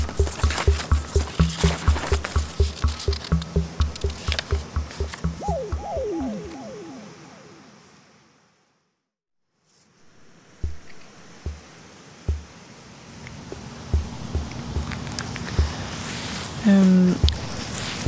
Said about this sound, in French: Alors je vois qu'elle est en train de piétiner le sol. J'ai vraiment l'impression qu'elle aime le contact de ses pieds au sol et elle veut même y mettre ses mains.